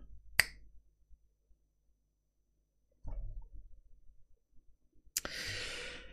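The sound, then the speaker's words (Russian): A single crisp finger snap against the palm, made with an air pocket in the hand, rings out, followed by quiet rustling and a soft breathy noise, then a longer airy hiss at the end; no one speaks. “А щелчок именно когда вот тут есть воздушная прослойка.”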